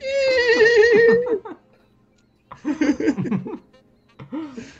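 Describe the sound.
A voice imitates a dolphin with a loud, wavering, high-pitched squeal lasting over a second, followed after a pause by chattering, laugh-like vocal bursts and a brief final squeak.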